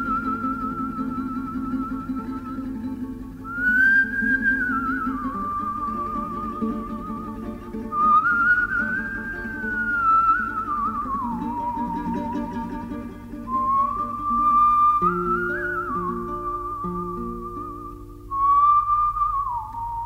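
Someone whistles a flowing melody, holding long notes that glide up and down, backed by a soft, steady instrumental accompaniment throughout, with no talking.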